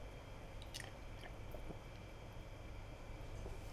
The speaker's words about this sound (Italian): Bevete un po' d'acqua come me.